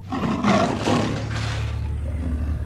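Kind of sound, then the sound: animal, tiger roaring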